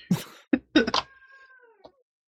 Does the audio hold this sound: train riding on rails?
no